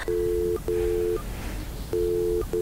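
A telephone ringing tone: a steady, low-pitched electronic hum sounding in several long bursts separated by short pauses, with no voices.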